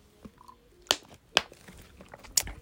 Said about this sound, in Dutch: Voordat ik begin, laat me een klein slokje nemen.